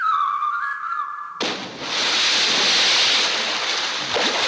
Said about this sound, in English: Hello there, struggling figure in the water. Hey, will you quit splashing?